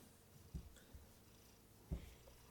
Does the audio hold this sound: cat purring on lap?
yes